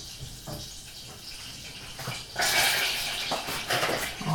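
Fat melts in a pan with a soft, steady sizzling hiss that swells noticeably about halfway through, with faint crackles scattered over it. No one speaks.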